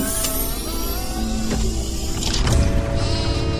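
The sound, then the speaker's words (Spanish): A sheep bleats loudly, a drawn-out, quavering call that shifts pitch partway through and carries on for a few seconds with no one speaking. “En este año nace Dolly, la primera oveja clonada exitosamente.”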